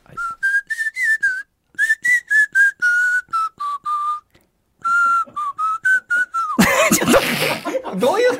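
Someone whistles a bouncy pop tune, clear phrased notes with short pauses between them, then it breaks off into a burst of laughter and chatter at the end.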